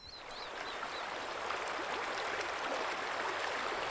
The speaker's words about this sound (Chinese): 潺潺流水的声音， 溪流，嗯，四十五， 三十五。